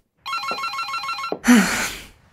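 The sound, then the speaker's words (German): A telephone bell rings loudly in a rapid, trilling burst for about a second, then breaks off with a clunk and a short burst of rustling, handling noise; the phone is in a Victorian villa on the outskirts of London, England, in November 1987. “Das Telefon klingelt immer im ungünstigsten Zeitpunkt.”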